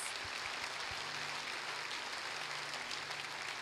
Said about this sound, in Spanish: Les damos un aplauso a estas personas.